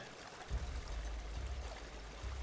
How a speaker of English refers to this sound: but as Professor Barsarand turns and starts to look around through the water, across the water, across this river here, uh, into the forest to the north, looking for any other professors that might have been injured.